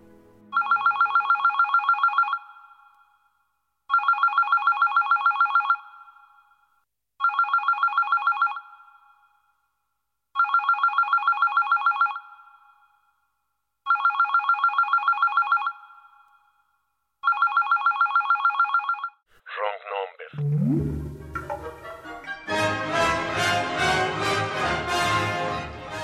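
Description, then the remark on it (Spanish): A telephone rings six times in evenly spaced electronic bursts, loud, with silence between rings, before music swells in at the end. “Señor, quien quiera que haya sido el que iba a llamar y no llamó, y tal vez no era nadie, o era alguien cuyo número no está en el directorio de Los Ángeles, Contesta tú el teléfono.”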